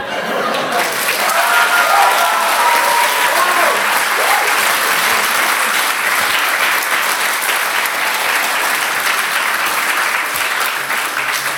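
Sustained audience applause fills the whole stretch, a dense, steady clatter of many hands clapping at once, loud, with faint voices mixed in near the start.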